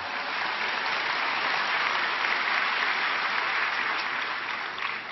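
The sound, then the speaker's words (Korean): An audience bursts into steady applause, many hands clapping in a dense, even roar that holds at full strength for about five seconds with no voices rising above it. “기록적인 평양부터 베이징 이렇게 박수로리 한번 경려해 주세요.”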